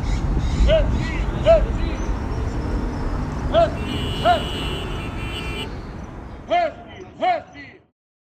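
An old Volkswagen Kombi van engine is started, cranking and rumbling at low pitch throughout, with several short, higher whining chirps popping out in pairs over the steady chugging before it cuts off.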